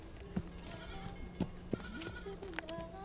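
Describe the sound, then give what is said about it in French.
A flock of sheep or goats bleating outdoors in a wild ravine, several overlapping calls from different animals, with a steady low hum underneath. “Un jour, accablé par la chaleur de midi, il amena son cheval dans le ravin sauvage où Yasmina gardait son troupeau.”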